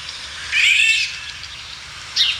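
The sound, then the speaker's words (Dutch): A harsh, scratchy call of a Eurasian golden oriole sounds loudly for about half a second, then briefly again, with faint sparrow chirping in the background. “Je hoort dus een mus doorheen eh, tetteren, maar dat kwek, dat is dus eh, een wielenwal eh, die, ja, dat is niet echt een, een, een, zang kun je niet noemen, het is een roep.”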